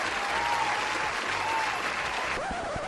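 Steady applause from a group fills the whole stretch, a dense wash of clapping at a fairly loud, even level, with a faint background tone running beneath it.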